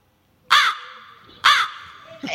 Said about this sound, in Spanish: Estamos haciendo un Royal Rumble y esto no puede ser un Royal sin los cuervos. ¿Dónde están los cuervos?